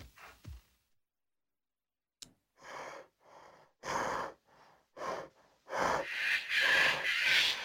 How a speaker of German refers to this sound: Da haben wir Schnaufen vom Bären.